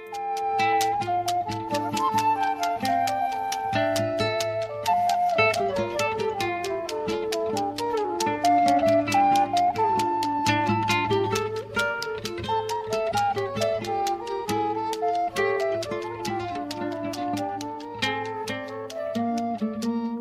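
A matchbox tapped as percussion, keeping a quick, steady run of dry clicks throughout, under a sustained sung melody and a low, constant hum.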